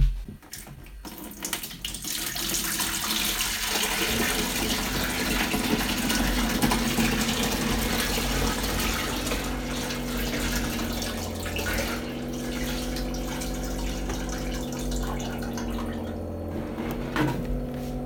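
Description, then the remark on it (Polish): Water pours steadily for a long stretch from a jug into a water filter's tank for unpurified water, a continuous splashing stream, with the tone shifting slightly as the level rises. No one speaks. “Teraz konkretnie nalałem wodę do dzbanka i przeleję ją do zbiornika na wodę nieoczyszczoną.”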